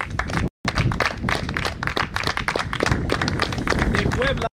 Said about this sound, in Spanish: un aplauso por favor.